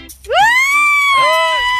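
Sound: someone screaming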